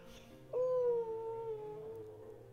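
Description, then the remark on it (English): A human voice imitates the howl of a dog named Howl: one sustained, slightly falling tone held for about a second and a half, fairly loud, tapering off at the end. “And then Howl's goes,”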